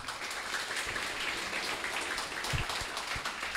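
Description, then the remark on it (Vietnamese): A crowd claps steadily to welcome a guest speaker, Google's marketing director for Vietnam, a dense crackling patter of many hands that holds an even, moderate level throughout, with no voices over it. “Xin một tràng vỗ tay.”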